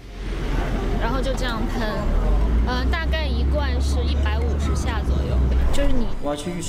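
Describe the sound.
Heavy street traffic rumbles steadily in the background, a continuous low drone beneath a person talking throughout.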